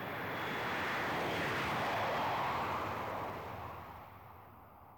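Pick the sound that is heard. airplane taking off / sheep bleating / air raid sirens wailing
airplane taking off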